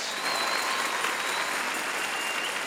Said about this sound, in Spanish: A ver, démosle palmas fuertes a nuestro Señor. Gloria a Dios.